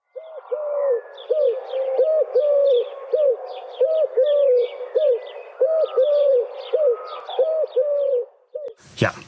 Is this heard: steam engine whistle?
no